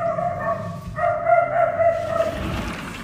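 A dog barks in drawn-out, tonal calls that stretch almost continuously over a few seconds, moderately loud, with a low rumble of background noise underneath and no talking.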